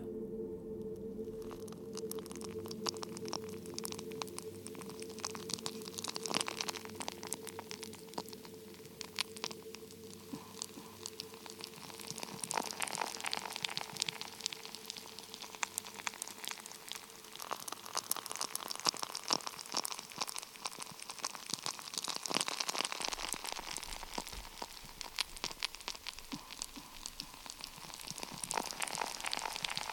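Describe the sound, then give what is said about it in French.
A sourdough starter bubbling and fermenting: a dense, steady stream of tiny wet pops, squishes and crackles, soft and continuous for the whole stretch, with no voices. “Et le chant du levain Le chant du levain Il est tellement doux, tellement précieux et tellement difficile à capter et à apprivoiser que j'ai décidé de vous faire entendre le chant de mon levain tendez l'oreille.”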